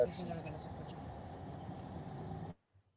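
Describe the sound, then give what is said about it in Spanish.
Steady low rumble of a car engine and road noise from inside a moving vehicle, heard muffled as if over a phone line, lasting a few seconds before cutting out abruptly. “A ver, se ha ido, pero va a volver porque, claro, es que está en un carro, ¿no?”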